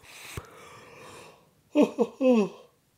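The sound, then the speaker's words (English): A person yawns: a long breathy inhale, then a few short voiced, groaning exhales that rise and fall in pitch. It is fairly loud, with no talking. “apologies, I had to get that yawn and I was fighting it through this whole fucking breakdown.”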